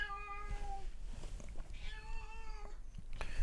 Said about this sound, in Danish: Ja, det kan katten, som øh, står og beklager sig, virker det til.